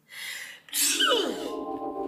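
a sneeze

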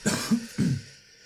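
cough

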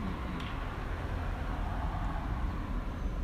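cars driving past outside

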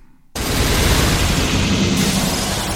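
gunfire sound effect

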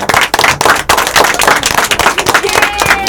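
loud applause

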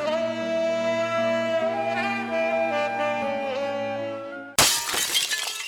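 glass shattering

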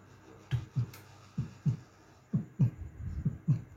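heartbeat

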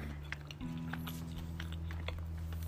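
chewing and biting food

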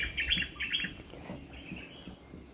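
wild birds chirping

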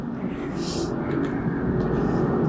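airplane flying

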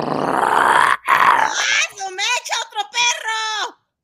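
dogs growling

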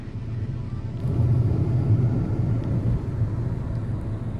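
car driving

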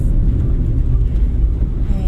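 car driving

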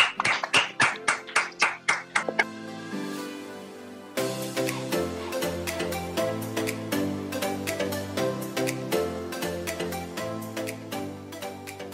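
clapping applause

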